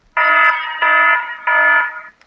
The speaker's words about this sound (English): Alarm One will play. Beautiful.